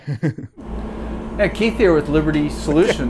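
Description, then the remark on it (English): A generator and an air conditioner run simultaneously inside a trailer, a steady low mechanical drone that starts abruptly and runs continuously beneath a man laughing and talking. “It sounds like the boys are running a generator and air conditioning simultaneously, I believe to avoid being cooked alive in the box.”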